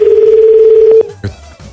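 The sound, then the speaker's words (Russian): A loud, steady African telephone call tone hums for about a second, then cuts off abruptly, followed by a brief click and faint line noise. “Это африканские гудки.”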